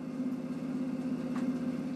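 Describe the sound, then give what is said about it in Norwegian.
A mini combined heat and power plant (BHKV) in a laundry basement runs with a steady, even machine hum, a strong low tone and a faint rhythmic pulsing underneath, continuous like a small engine idling, with no voices. “Nede i vaskekjelleren står minikraftverket.”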